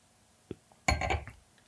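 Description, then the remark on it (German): A glass clinks, first a light tap, then a louder cluster of bright clinks and rattling contact as a drink is refilled, fading off after about half a second. “Doch, ich muss nur kurz nachfüllen.”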